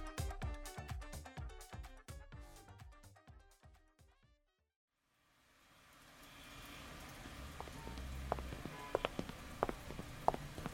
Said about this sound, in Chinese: 哦，下雨了。 进去借把伞吧，这里到停车场还有一段距离，不撑伞会湿的。